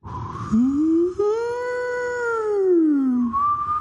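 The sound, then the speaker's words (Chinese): A voice imitates the eerie, ghostly howl of wind blowing through steel pipes: one long, loud wavering wail that slides up, holds, then sinks back down over about three seconds. “钢管被风吹过的时候，那种声音， 就里边就是那种，”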